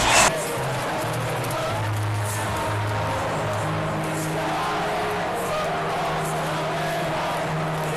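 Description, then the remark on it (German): A large crowd in the sold-out Wembley Stadium chants "England!" in unison at the women's European Championship final between England and Germany, many voices merging into a loud, sustained roar with drawn-out sung notes that rise and fall steadily for the whole stretch. “Und so hat sich das im ausverkauften Stadion angehört.”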